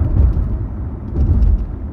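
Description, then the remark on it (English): A car drives along a road behind another car after a traffic light turns green, its steady low rumble and road noise droning continuously with a slight swell partway through, no voices. “Maybe I was paying attention to the car in front of me.”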